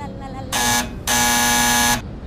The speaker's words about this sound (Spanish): Cuando sonó el timbre.